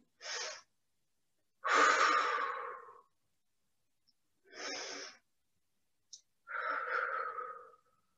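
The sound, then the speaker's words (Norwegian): Slow, deep breathing alone while holding a seated twist toward the left with the left foot drawn to the chest: two sharp inhales alternating with two longer, fuller exhales, fairly loud, with quiet pauses between each breath. “Og så blir vi her og puster.”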